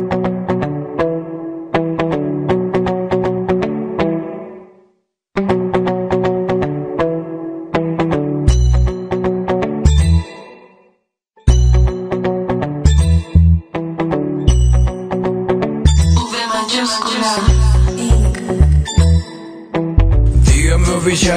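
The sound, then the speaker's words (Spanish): A song plays loudly: bright, chiming melodic notes repeat in a steady pattern, with short pauses, then booming bass hits and percussion join in for a fuller instrumental section. No one speaks. “Así es, vamos a escuchar este gran tema.”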